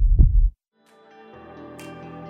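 A single deep, muffled heartbeat thump sounds, then a short silence before soft sustained music swells in.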